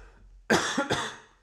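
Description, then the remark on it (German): A loud double cough, two quick harsh bursts in a row followed by a short fading tail, with no talking during it. “nochmal schnell husten, sorry.”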